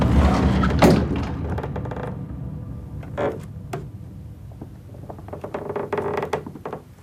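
Heavy wooden thuds and knocks against a cabin door as someone barricades it, with scraping and clattering as things are shoved against it, followed by a flurry of smaller clicks and bumps.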